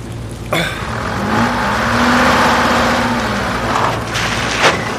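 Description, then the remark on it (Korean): A car engine revs loudly as the accelerator is pressed, its pitch swelling and then sinking as the brake engages, with a sharp thump near the start and another knock just before it ends. The car is called Bungbung. “엑셀을 봤는데 왜 브레이크가 잡혀?”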